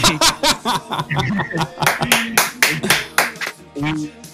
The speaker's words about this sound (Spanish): Sí, no, gracias ahí, un, un aplausito ahí, escuché.